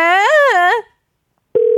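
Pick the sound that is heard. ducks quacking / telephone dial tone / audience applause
telephone dial tone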